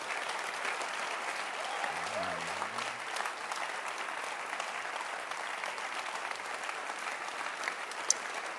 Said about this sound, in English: Every minute of this conference was a miracle. Can you clap your hands?